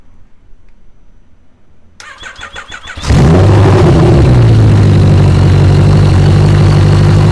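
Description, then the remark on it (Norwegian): A motorcycle engine cold start taken from a YouTube compilation video: after a brief quiet moment a starter cranks rhythmically for about a second, then the engine catches with a loud roar and settles into a steady idle. “Det var ikke uh, sykkelen min som lagde den lyden, for å si det sånn.”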